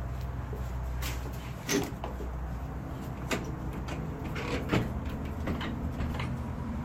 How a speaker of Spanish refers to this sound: Esta puerta igual no la probé, eh, capaz, se abre.